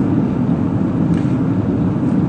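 A steady, low rumbling roar of road noise inside a moving car, constant and fairly loud throughout, with no voices or other distinct sounds.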